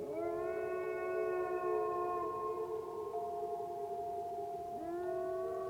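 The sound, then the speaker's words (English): A pack of famished wolves howl together in long, overlapping, sustained tones, the chorus holding steadily loud before a fresh howl rises in near the end, with no voices present. “even of being attacked by packs of famished wolves, whom, forsaking their usual haunts in the woods due to the weather, prowled around the habitations.”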